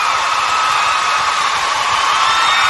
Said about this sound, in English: I managed to survive this entire weekend in dorms without drinking, so I think I deserve a rousing round of applause for that.